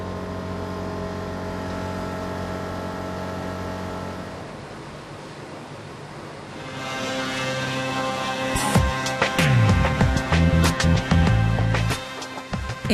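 In a sawmill, workers run an older frame saw and, beside it, a modern planing machine. The machines make a steady, droning mechanical hum that swells into a louder roaring rush, punctuated by rapid clattering knocks and bangs in the second half. No one speaks.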